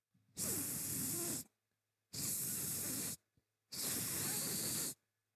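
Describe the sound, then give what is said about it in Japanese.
Three sustained sibilant 's' hisses, each about a second long, separated by brief silences and fairly even in loudness. The sharp 's' edge is softened by de-essing in the RX8 audio software, in a demonstration of reducing sibilant 's' sounds. “まあ、こんな感じで、えー、S の音、スレド音ですね、えー、削減することができていくんですよ。”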